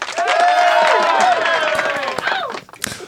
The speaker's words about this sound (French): attends, ah, bah, t'en veux des applaudissements Bouge pas, t'inquiète.